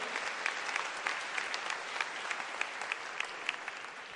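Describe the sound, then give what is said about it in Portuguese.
A crowd claps steadily for about four seconds in honour of Jesus, a dense, even wash of many hands with occasional sharper individual claps standing out, sustained at a constant loudness without fading. “Então aplauda ele bem forte em nome de Jesus, aleluia.”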